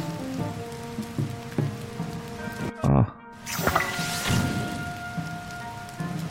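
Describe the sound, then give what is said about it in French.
Steady rain in a video game patters continuously on a surface throughout, with a faint sustained tonal hum underneath and a brief spoken exclamation partway through. “Attends, ici il prend la pluie Ah ok.”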